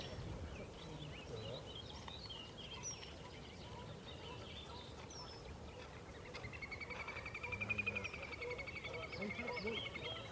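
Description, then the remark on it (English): A little grebe's high, rapid whinnying trill starts partway through and runs on for several seconds, rising in strength. It sits over a steady low outdoor rumble. “That is, uh, that's the little grebe.”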